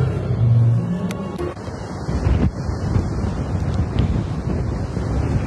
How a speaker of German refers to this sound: also vom Balkon heute immer noch ein geiles Rauschen der Wellen.